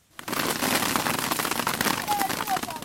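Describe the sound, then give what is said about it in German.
Dates shaken from a palm tree by a man up in the tree pelt a large plastic tarp at the Siwa oasis in Egypt, in a dense, continuous patter of many small impacts, loud, sounding like a sudden downpour drumming on sheeting for about three seconds. “Wie Platzregen fallen Datteln auf eine riesige Plastikplane.”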